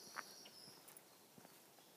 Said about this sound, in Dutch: Ik hoor mijn voetstappen en allerlei vogels.